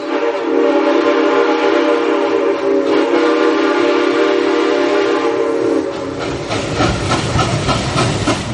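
A train whistle blows steadily in a long, loud, continuous tone, then the rumble and clatter of a passing train grows heavier near the end, with no voices.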